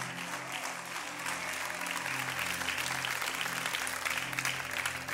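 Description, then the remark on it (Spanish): An audience applauds steadily, a dense wash of many hands clapping that swells slightly after the first second and holds at an even, loud level throughout, with a faint low hum underneath. “Aplauda si quiere.”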